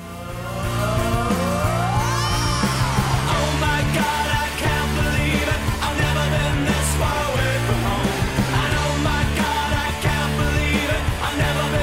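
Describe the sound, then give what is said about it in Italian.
A loud, busy theme jingle plays for about twelve seconds, opening with a rising swoop like a revving engine, then a steady, driving bass pattern under bright layered tones. No one speaks. “Eh, questa è la nostra sigla e l'aneddoto più incredibile del nostro ospite.”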